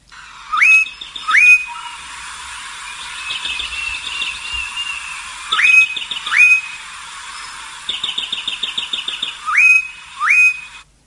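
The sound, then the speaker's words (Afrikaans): A bar-throated apalis calls: pairs of sharp, rising whistled notes repeat every few seconds, with quick rattling trills between them, and no one speaks. “Die een is 'n bandkeeljantjie wat so klink”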